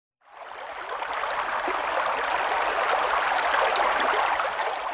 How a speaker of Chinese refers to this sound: Okay, so this is the sound of a stream, a brook, or a river, right?